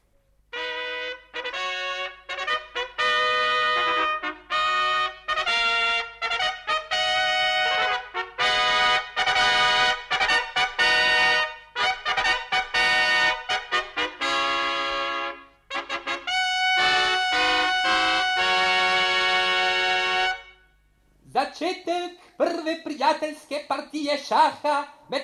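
A loud, bright trumpet fanfare from trumpeters sounding the start of a game plays alone, a rhythmic run of short and held brassy notes that continues for about twenty seconds before shifting into a brief, busier closing phrase.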